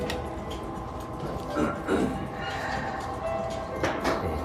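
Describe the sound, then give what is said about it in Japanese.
A few sharp clacks of golf drivers striking balls at a driving range, spaced irregularly over a steady hum of background noise, with no one talking. “ちょっとゴルフの音でもね”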